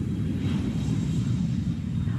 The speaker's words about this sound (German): Und ich spüre wie der Flieger jetzt vom Boden abhebt.